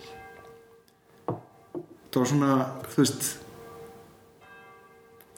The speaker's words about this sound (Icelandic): vegna þess að það er actually það er kirkjuklukur að klingja hér Já. það er sunnudagur, fyrsti sunnudagur á uh, árunnu 2020